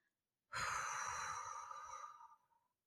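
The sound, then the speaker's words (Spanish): A single long, breathy exhalation blown slowly out through the mouth as part of a breathing exercise, starting abruptly and tapering off over about two seconds. Fairly loud, with no talking. “A la hora de expirar, como decíamos, ese globo que estamos hinchando lo vamos a deshinchar poco a poco para echar el aire por la boca.”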